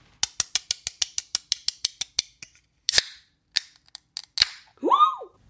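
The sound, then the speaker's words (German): A bottle of Barrel Project Edition 20.06 beer is opened: a quick run of sharp metallic clicks, then a short hissing pop of released gas, a few more clicks and a brief rising squeak at the end. “Und so hört sich das dann an. Hier kommt das Geröff vom Barrel Project Edition 20.06.”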